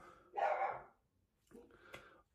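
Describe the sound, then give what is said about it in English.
Dogs bark in the background, two short, fairly muffled bursts separated by a brief pause, with no one talking over them. “You may hear the dogs in the background.”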